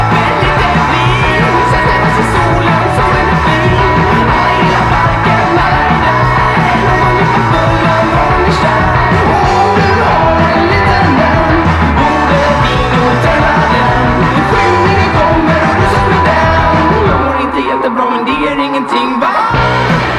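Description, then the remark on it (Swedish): Loud, noisy garage punk rock from a rock band from Gothenburg, Sweden, a track from their EP, plays continuously with distorted guitars, pounding drums and shouted vocals, dense and raw throughout before thinning out slightly near the end. “en rockorkester ifrån Göteborg som spelar skränig garagepunk efter bästa förmåga.”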